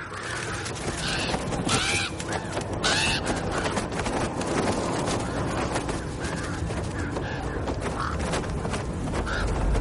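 Harsh crow caws ring out several times in quick bursts as crows fly over a wall of ice and over frozen mountains and plains, scattered over a dense, rumbling background of continuous noise with creaking tones.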